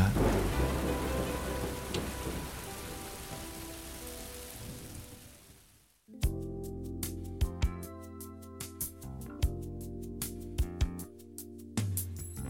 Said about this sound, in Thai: หลังจากที่โปรยสารเคมีเสร็จไปไม่นาน ก้อนเมฆก็เริ่มขยายขนาดใหญ่ขึ้นเรื่อยๆและรวมตัวกันหนาแน่นขึ้น จนกลายเป็นกลุ่มเมฆสีเทาเกือบดำ ภายใน 15-30 นาที และในที่สุดเม็ดฝนหยดแรกที่ทุกคนรอคอย ก็ร่วงลงมาจากท้องฟ้า